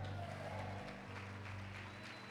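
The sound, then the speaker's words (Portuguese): An audience applauds the Lord together in a steady, dense patter of many hands clapping over a low sustained musical hum for a couple of seconds. “Se você entende e crê nisso, dê um braço de vitória, aplauda o Senhor aqui.”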